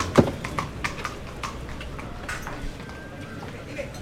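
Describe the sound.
A horse's hooves clip-clop across a bullring arena in a loose, uneven walking rhythm, with a man's voice talking faintly underneath, as rejoneador Andrés Romero rides in through the drag-out gate to change horses during a bullfight.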